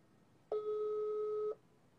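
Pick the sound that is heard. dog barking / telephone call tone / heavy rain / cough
telephone call tone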